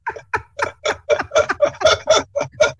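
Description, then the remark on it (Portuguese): A clock ticks steadily and loudly, about a dozen crisp, evenly spaced tick-tock beats with nothing else around them. “Fala aí, relógio biológico, né?”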